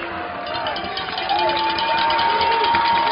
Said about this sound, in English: Crowd again, have the cowbells out.